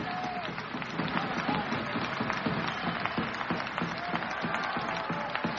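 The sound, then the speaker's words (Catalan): A large basketball crowd applauding steadily as player Wasinski heads to the bench after being substituted, a dense wash of many hands clapping that holds at a fairly loud level throughout, with a murmur of voices mixed in. “Wasinski que se'n va cap a la banqueta escolteu l'aplaudiment”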